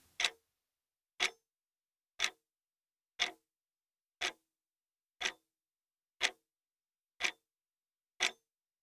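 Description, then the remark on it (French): A clock ticks steadily, one sharp click about every second, nine ticks in all, clear, with silence between them and no voices. “Imaginez, imaginez voir cette horloge observer quelques instants.”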